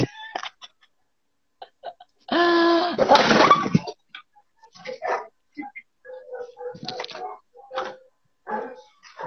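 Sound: dog barking and whimpering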